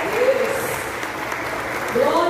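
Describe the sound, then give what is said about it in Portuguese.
A church crowd claps continuously for the person beside them in a dense, steady wash of applause, with faint voices calling out beneath it. “Você pode aplaudir o irmão que está do seu lado?”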